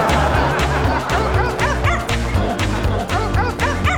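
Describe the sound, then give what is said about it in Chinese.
A voice imitates a dog barking in a sung line, "let's learn to bark like dogs together," giving a rapid string of short, bright yelps in a bouncy rhythm over loud, steady music with a thumping beat. “让我们一起学狗叫，一起哇哇哇哇哇。”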